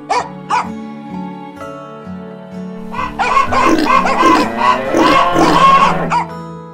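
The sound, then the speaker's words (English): A noisy chorus of farm animals: hens clucking, a cow mooing, a pig oinking and a dog barking, overlapping loudly after a quieter opening of sustained tones and a few sharp knocks. “Cluck, cluck. Moo, moo. Oink, oink. woof, woof.”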